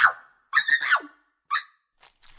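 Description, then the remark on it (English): A creaking hallway floor and a door into a living room: a series of high, squeaky creaks, one drawn out and wavering, then shorter groans, the last one faint, with silence between. “And so we left Dave the lawnmower at the door and crept across the creaky hallway and open the creaky door into the living room.”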